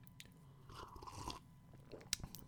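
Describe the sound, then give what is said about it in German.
Quiet handling of a cup of coffee being set out: soft scraping and rustling, then a short, bright clink of ceramic near the end. No one speaks. “Hab mir hier eine Tasse Kaffee bereitgestellt, ähm”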